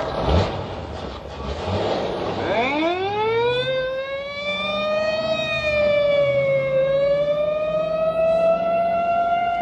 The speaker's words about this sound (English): Or in a screaming squad car.